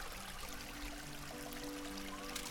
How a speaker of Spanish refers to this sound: ¡No! ¡Muchachos! Aquí la corriente es muy fuerte. ¡Se van a ahogar! ¡Me lleva la corriente!